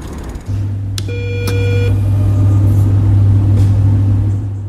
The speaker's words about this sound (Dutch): Het ligt in de haven van Gent tussen de windmolens en loodsen en ik ben de enige fietser tussen allemaal vrachtwagens.